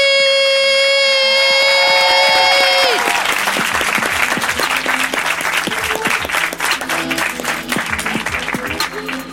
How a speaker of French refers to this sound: Faites un putain de tonnerre d'applaudissements pour vous, Encore, encore, encore, encore, encore. Plus fort, putain, mais vous avez plus que ça à donner.